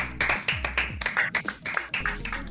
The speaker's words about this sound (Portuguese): Amiga, entregou, viu? Palmas, Brasil.